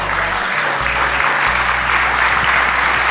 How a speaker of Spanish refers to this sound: El aplauso lo extiendo para ustedes que les interesó este tema